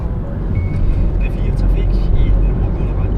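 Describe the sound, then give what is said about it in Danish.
A car drives along at a steady pace past a primary school, its engine and road noise forming a continuous low rumble throughout, with faint, indistinct voices now and then. “Vi kører ned forbi folkeskolen, der hvor Maja gik.”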